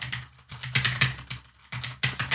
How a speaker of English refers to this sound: Clack, clack, clack, clack, clack, clack, clack, Oh, that's my keyboard. Clack, clack, clack, clack.